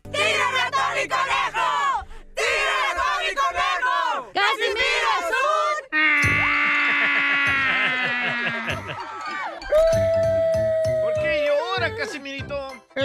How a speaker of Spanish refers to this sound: estoy llorando.